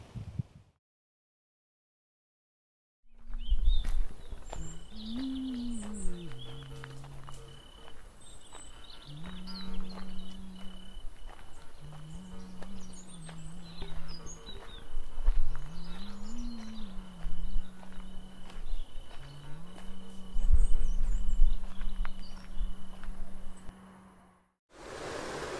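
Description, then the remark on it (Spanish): A steady, even rush of flowing river water fills the background, with faint high bird chirps and a low, wavering droning tone that repeatedly swells and falls on top. “Allí está el río y por eso este sonidito de fondo.”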